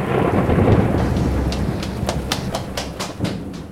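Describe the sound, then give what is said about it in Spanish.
Steady rain pours over a deep, rolling rumble of thunder, with a quick run of sharp crackling patters rising toward the end. No voices are heard. “Sus evidencias se incendiaban en aquel edificio derrumbado y, antes de que llegaran los forenses, el resto se sería corroído por la lluvia ácida.”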